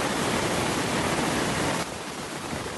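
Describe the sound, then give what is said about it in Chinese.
The swollen main channel of a village stream, flooding during a typhoon, rushes loudly in a steady, dense roar of churning water, broad and hissing, easing slightly in level near the end. No voices are heard. “这里是我们村小溪的干流啊，现在水流量非常的大。”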